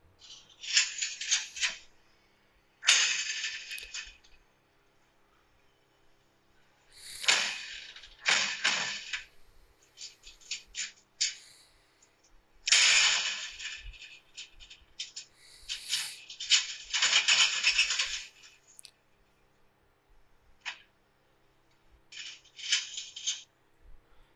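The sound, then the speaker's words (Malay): A loud motorized house gate mechanism rattles and clatters in repeated harsh bursts with short pauses between them, as if the gate is being banged, with no voices. “Itulah dia Kuat kan Macam dia bank dia punya gate tu Hui Kalau aku jadi owner rumah ni Aku dah keluar”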